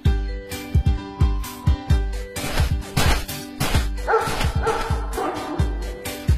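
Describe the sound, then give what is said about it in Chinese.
A dog barks over and over in a quick, steady rhythm, the loud yapping bursts evenly spaced like a beat, with sustained tonal sounds layered underneath in the second half. “但一点可以肯定，制作人很讨厌喵，但同时也很喜欢狗。”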